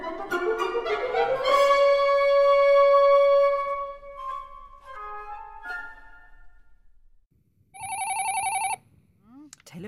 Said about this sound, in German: Telefon? Ist noch gar keine Rätselzeit.